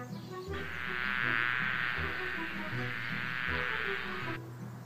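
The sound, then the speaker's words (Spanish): A steady swarm of bees buzzing loudly and continuously for several seconds, unbroken, with a low tonal hum rising and falling beneath the insect drone. “Hoy las abejas están muy aburridas y no saben qué hacer.”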